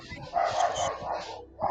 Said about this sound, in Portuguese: Deu para escutar o cachorro? Deu para escutar. É, ele tem que fazer a participação, né? Porque ele é, é ó, é muito excitado aqui dentro.